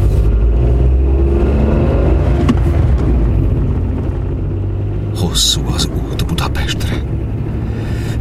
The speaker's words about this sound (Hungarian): Így menetelt az a gépkocsi had az uton dübörögve.